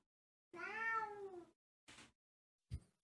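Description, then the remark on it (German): A male cat gives one long, clear meow, fairly loud, followed by two short, softer sounds. No one speaks. “Und der Kater ist wieder da.”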